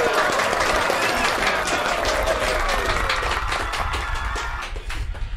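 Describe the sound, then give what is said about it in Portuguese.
An applause sound effect added to a video: a crowd applauds steadily throughout, a dense wash of loud clapping with some cheering voices mixed in, easing off slightly toward the end. “Eu coloquei palmas aqui, ó.”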